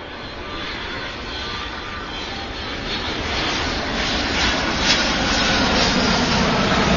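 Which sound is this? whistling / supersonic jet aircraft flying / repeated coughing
supersonic jet aircraft flying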